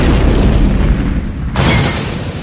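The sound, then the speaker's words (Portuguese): The side wall of a warehouse by the sea explodes: a loud, deep, continuous rumbling roar, then a sudden sharp burst of blast noise partway through that keeps crackling to the end. No voices. “Enquanto cai em direção ao mar, ele também vê a explosão da lateral do armazém.”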